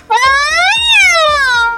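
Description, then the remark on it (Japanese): A single sustained, harmonic meow-like tone that rises, peaks, then glides downward over nearly two seconds, made by sliding a finger along a string instrument to sound like a cat, loud, with faint soft taps underneath. “こんな感じでやる方がちょっと猫っぽくなるぞ。”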